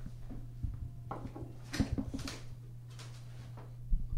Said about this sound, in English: So Ben's pouring our shots